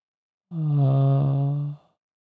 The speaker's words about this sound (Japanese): このあーって音が突然消えるじゃないですか。これがね、あのノイズゲートなんですよ。マイナス38.4以下はになると、一気に声が消えるというね。